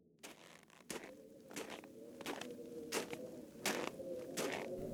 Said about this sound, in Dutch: Het geluid van zware voetstappen door een dikke laag sneeuw weerkaatst door de nachtelijke stilte. Een wollige witte deken bedekt de hellingen van de rij heuvels, die bekend staat als de Scherpe Heuvels.